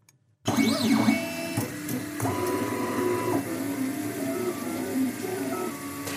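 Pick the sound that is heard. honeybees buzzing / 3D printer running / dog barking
3D printer running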